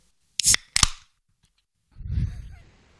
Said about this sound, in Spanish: Claro, es que eh, esta es una de las ventajas también de, hacer el programa en casa. claro, que, puedes abrir una lata. Te puedes, tomar una birra mientras haces el programa.